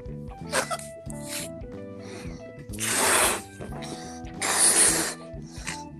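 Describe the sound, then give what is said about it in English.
Two long, forceful puffs of breath blown hard into a balloon, each a loud hissing rush lasting about half a second, with people talking around them. “I just blow balloons.”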